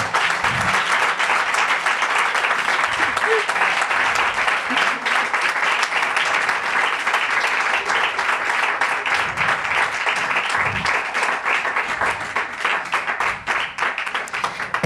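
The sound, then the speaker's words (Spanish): Steady audience applause welcoming the programme's guests, Chicas Sobresalto, fills the whole stretch, a dense wash of many hands clapping at a constant, loud level, with faint voices murmuring underneath. “Y lo que vamos a hacer es, para desestresar este momento, recibir con un pedazo aplauso, porque no lo hemos dado, y es que nuestros invitadas reciben un aplauso lo primero programa.”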